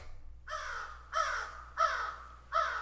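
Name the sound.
crow cawing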